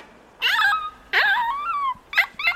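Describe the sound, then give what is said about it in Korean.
A puppy whimpers in several drawn-out, wavering whines, followed by a couple of short, high yips. It is fairly loud, with no one talking. “강아지가 자꾸 못채는데 산책 시킬까요?”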